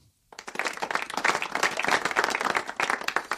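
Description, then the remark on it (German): A burst of applause for the speakers themselves begins abruptly after a short silence and continues steadily, a dense patter of many hands clapping with no one speaking over it. “Dafür mal ganz kurz einen Applaus für uns.”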